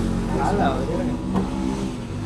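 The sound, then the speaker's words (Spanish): Motorcycle engines rev and drone steadily, a loud continuous motor roar with shifting pitch, as if bikes are passing by, with voices mixed in underneath. “Les valió verga las motos, ¿verdad, güey?”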